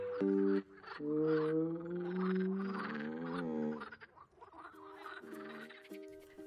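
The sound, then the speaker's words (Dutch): A voice imitates a frog while singing a Dutch children's song, 'I am a frog and I croak', making a run of loud, drawn-out, bending croaks one after another, with a short sharp burst at the start and no other sounds behind it. “Ik ben een kikker en ik kwak, kwak, kwak, kwak, kwak, kwak, kwak.”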